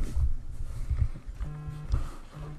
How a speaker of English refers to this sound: Yeah, I can hear your phone vibrating.